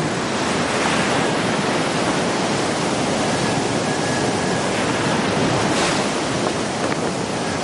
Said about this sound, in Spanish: Hace mucho viento. Se detiene en la orilla y mira las olas del mar revuelto.